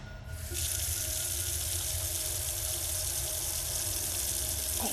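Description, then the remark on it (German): Cold water rushes from a tap into a bedpan, a steady broad hiss that starts abruptly after a brief quieter moment and runs continuously, with no voices. “tu da kaltes Wasser rein und schütt das dem Paco ins Gesicht”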